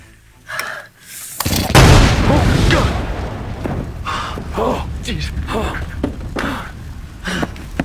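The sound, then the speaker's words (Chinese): A sudden loud boom as a generator's engine, with oil spilled into it, explodes and catches fire the moment it is started, a broad roaring burst that swells for a second or two and then fades into a rumbling tail, with voices heard afterward. “启动的瞬间，发动机直接爆炸着火。”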